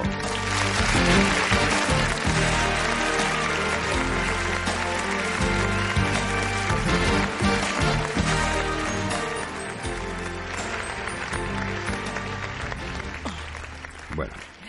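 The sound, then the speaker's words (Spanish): Steady audience applause with dense clapping that holds strong for most of the stretch, then eases slightly in the last few seconds without stopping. “Un aplauso, por favor, público.”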